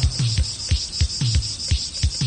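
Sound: cicadas buzzing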